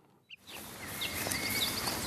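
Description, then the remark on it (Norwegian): Faint bird chirps and thin whistled notes over a steady outdoor hiss of forest ambience in late summer, deep in a forest on a tractor track by a horse pasture at Nesodden, with one short call near the start before the background noise swells. “Det kommer såpass langt ut på sommeren nå at det er ikke trosten som utgjør hoveddelen av lydbildet.”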